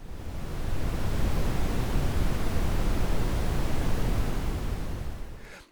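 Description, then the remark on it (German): Oak leaves rustle in a steady wind, making a dense, continuous hiss with no distinct gusts or pauses. It holds level for several seconds, then fades out quickly at the end. No voices. “Das Rauschen der Eiche ist vor allem durch seinen ausgeprägten Hochtonbereich zu erkennen.”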